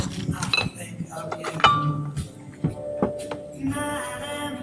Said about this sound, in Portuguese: Ah, então vamos brindar.